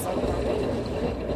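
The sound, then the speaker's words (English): Washing machines running during laundry in Brooklyn, with a steady, continuous rumbling drone and a broad hiss, holding an even loudness across the short stretch, with faint indistinct voices mixed into the background. “That's me doing my laundry in Brooklyn.”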